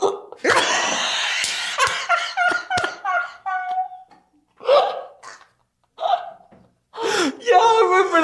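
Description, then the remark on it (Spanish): A series of sharp hiccups with gasping intakes of breath, coming in irregular bursts mixed with breathy, laugh-like vocal sounds and brief pauses between them. “¿Por qué te da hipo cuando digo sociedad área, güey?”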